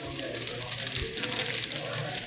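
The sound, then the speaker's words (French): Heavy hail pours down in a dense, steady clatter, a continuous crackling hiss with a low rumble beneath it, unbroken for the whole short stretch. “Il y a une énorme euh, inverse de grêle.”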